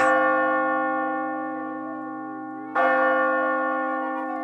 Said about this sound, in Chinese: 当当当，钟声敲了九下。